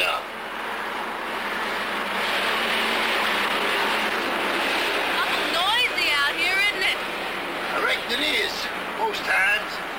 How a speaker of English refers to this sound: Now, keep in mind during this whole thing, is it's literally blaring, right? The traffic oh. is fucking blaring. Yeah, that like traffic like uh like uh, audio track that they had for that. They just like turned it up as high as they could yeah